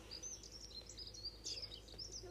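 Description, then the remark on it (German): A bird chirps in rapid, repeated high-pitched bursts, loud against a steady low background hum, with no one talking. “da hat gar ganz Vogel so ultra laut.”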